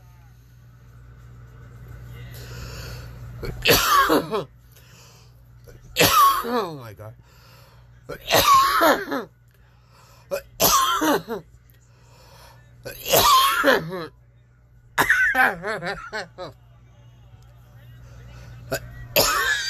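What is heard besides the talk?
coughing fit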